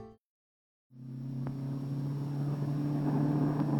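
After a brief silence, a crowded bus's engine rumbles in with a steady low drone, its hum growing slightly louder and fuller as it rolls slowly into the platform at the terminal stop. No one speaks.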